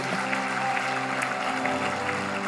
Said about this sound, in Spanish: Porque le damos un fuerte aplauso, iglesia, a estas personas. Qué increíble momento.